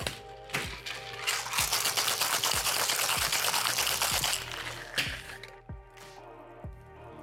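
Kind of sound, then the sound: food or drink, cocktail being shaken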